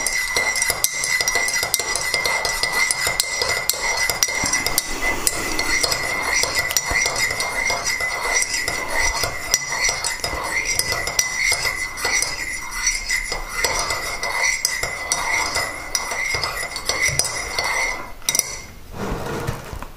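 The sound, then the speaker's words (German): A spoon stirs briskly in a coffee cup, with steady, repeated metallic clinks against the ceramic for around eighteen seconds, fairly loud, then stops abruptly. “Falls irgendwas ist, kann ich mich jetzt noch mal ein bisschen hinsetzen hier schön und meinen Kaffee trinken.”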